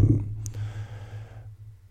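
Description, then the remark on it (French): A single long, deep breath taken as a breathing exercise, its airy rush fading out after about a second and a half, with a low steady hum underneath and no talking. “Euh, c'est un peu, c'est assez représentatif de ce que je fais quand je fais, quand je fais de la, de, la, respiration comme ça.”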